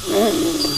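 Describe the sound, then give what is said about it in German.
A dental suction device draws air during dental treatment with a short, gurgling whine, a wavering tonal slurp under a faint high hiss, lasting under a second. “Okay, und saugen.”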